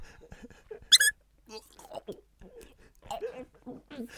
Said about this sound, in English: All that should leave just enough time for me to combine two of my favourite films, Cool Hand Luke and Despicable Me, as I, live on the podcast, eat 50 hard boiled Minions squeaky toys. just gonna start with one of them now.